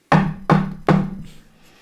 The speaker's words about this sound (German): Auch jetzt äh, strömt Rauch aus einem kleinen Schornstein und die Vordertür ist tatsächlich auch geschlossen. Ich klopf mal kräftig dagegen an.